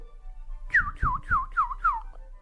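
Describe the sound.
An announcer whistles five quick, descending chirps in a steady rhythm, imitating small birds' calls. The whistling is fairly clear, with no talking.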